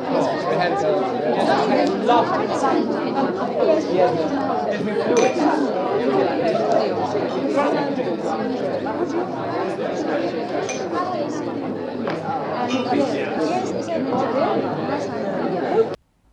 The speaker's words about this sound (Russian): ходят по дублинским пабам и записывают белый шум.